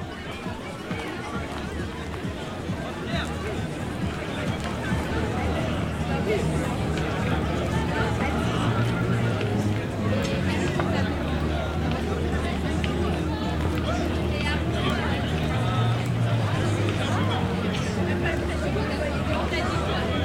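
A dense outdoor crowd on 22 May, eleven days after lockdown ended, murmurs steadily for the whole stretch, many overlapping voices blending into a constant babble with the occasional voice standing out, with no single speaker dominating.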